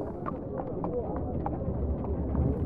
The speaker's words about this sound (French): Au loin, sur le pavé devant son magasin, il entendit pourtant les pas des chevaux avancer.